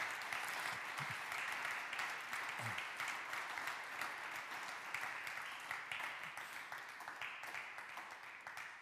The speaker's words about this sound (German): Ja, auch wenn er nicht hier ist, lass uns mal klatschen für den Friedemann, vielleicht hört er es.